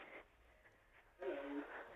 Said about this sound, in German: Ich höre dich schon atmen, jetzt musst du sagen, wie du heißt.